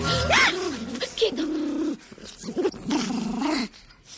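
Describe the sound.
A small furry Ewok, bear-like, about one metre tall, fat and wearing a leather hood, growls and chatters in a forest in a few throaty, warbling bursts, its whiny voice rising and falling, with a brief pause midway.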